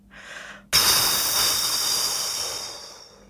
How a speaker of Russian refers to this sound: Теперь шумно выдохни. Вот так.